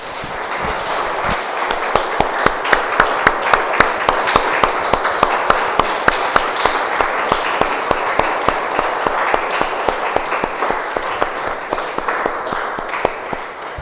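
A church crowd applauds the Lord steadily for about fourteen seconds, a dense wash of many hands clapping with sharper individual claps popping out throughout, no one speaking.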